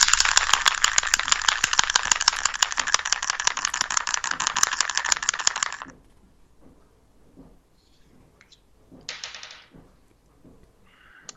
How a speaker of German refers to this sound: Ja, mach mal, mach, würfel mal bitte.